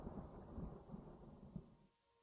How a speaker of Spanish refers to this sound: Por un momento oyó la trepidación de los truenos remotos.